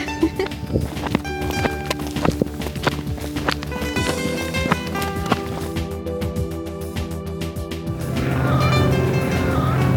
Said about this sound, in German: Ja, dann gehen wir weiter. Und jetzt nehme ich noch ein paar Schrittgeräusche auf.